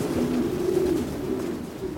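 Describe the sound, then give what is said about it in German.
Several racing pigeons coo continuously in a loft on the upper floor of a building on the outskirts of Beijing, their low, throaty murmurs overlapping in a steady, warbling chorus with faint ambience and no talking. “Im Taubenschlag im Obergeschoss eines unscheinbaren Gebäudes am Rande von Peking.”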